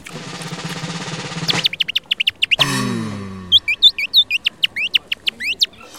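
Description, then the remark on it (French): After a burst of rushing noise, a tall man, at least 1.90 m, in a Hawaiian shirt and surf glasses at the foot of Beaubourg, mimics birds while miming someone gorging, with a rapid string of high, sharp chirps and whistles, broken once by a lower squawk, fairly loud. “qu'un grand homme d'au moins 1m90, affublé d'une chemise hawaïenne et d'une paire de lunettes de surf, se mit à le mimer en train de se goinfrer, tout en faisant des bruits d'oiseaux.”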